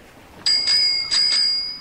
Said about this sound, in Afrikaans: Pappa lui die fietsklokkie.